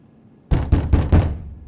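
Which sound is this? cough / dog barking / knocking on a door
knocking on a door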